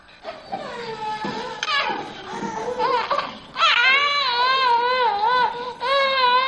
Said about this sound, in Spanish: Se escucha un niño ahora mismo. Eh, ¿Es un niño del edificio? No, en absoluto.